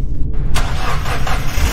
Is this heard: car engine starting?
yes